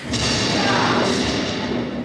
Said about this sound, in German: Gleich zu Beginn lässt Regisseur Bockelmann es auf der Bühne so richtig krachen.